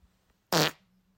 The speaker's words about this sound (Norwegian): Oi, oi, oi, nei, på tide å gå på do, er det ikke det? det prommen der skulle egentlig vært en bæsj?